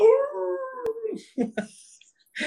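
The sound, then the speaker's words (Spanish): A person imitates a schnauzer's howl: one long, drawn-out wavering tone that slides downward, followed by a few short, clipped vocal bursts, fairly loud. “aullan durísimo.”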